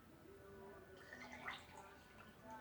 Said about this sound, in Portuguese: Tô enchendo a água.